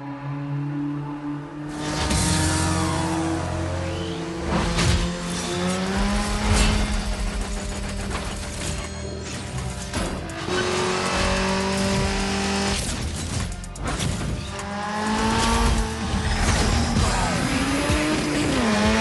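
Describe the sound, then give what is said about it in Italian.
Racing video game clip: a car engine revs and shifts through gears in steady, loud bursts, with sharp tire squeals and skids cutting in repeatedly, continuous with no voices. “utilizzeremo qualche spezzone di gioco in cui sentirete il rumore del motore, sentirete le voci dei personaggi, comunque per farvi calare nell'atmosfera.”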